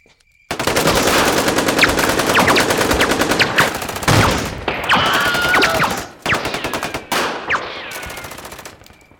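Loud, rapid automatic gunfire erupts and rattles on for several seconds in dense bursts, with brief gaps and sharp cracks near the end before cutting off.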